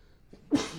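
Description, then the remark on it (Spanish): A single sneeze bursts out abruptly after a brief quiet moment, sharp, then trails off into a breathy, noisy release. “Salud.”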